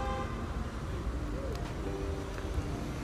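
Busy bus terminal ambience at the Dar es Salaam bus terminal in the morning: a steady wash of engines and traffic rumble, with car horns honking now and then over the crowd noise and indistinct voices in the background.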